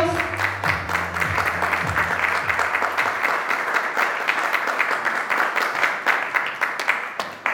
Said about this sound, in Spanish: Un fuerte aplauso para ellos.